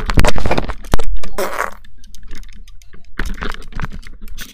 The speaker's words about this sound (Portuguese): Foi um peido. Ok. Foi, eu acho. Foi um peido.